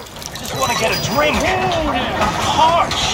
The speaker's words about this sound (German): Ein Stalljunge, der Wasser für die Pferde holt